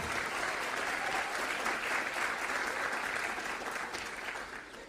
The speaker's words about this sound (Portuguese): Aplauda o Senhor.